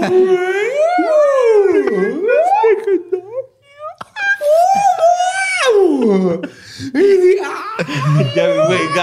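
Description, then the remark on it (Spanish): A person's voice mimics a whale call with long, swooping moans that glide up and down in pitch, loud and continuous, broken by brief pauses and a few squeaky, laugh-like bursts. “Habla cetáceo”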